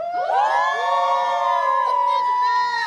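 crowd, audience cheering and shouting

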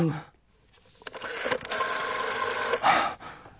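household object, dialing a telephone

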